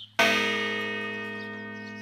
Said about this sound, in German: Probleme mit Nachbarn bereitet ihr die Glocke aber nicht.